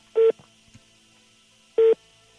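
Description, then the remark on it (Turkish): Two short electronic keypad beeps from a phone as the person on the call presses a key, each a steady dual-tone burst, separated by about a second and a half of near silence with a few faint clicks. “Evet telefona bir yere bastı galiba.”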